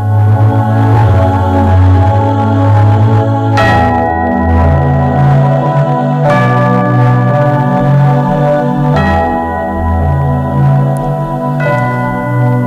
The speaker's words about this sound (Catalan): Amb aquesta campanes que estan sonant crec que estem donant una, una pista de lo que parlarem avui, eh? Una, una molt bona pista.